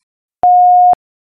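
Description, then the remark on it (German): A single steady electronic beep, the kind an answering machine gives, lasting about half a second. It is clear and fairly loud against silence, with no voices. “Please leave a message after the tone.”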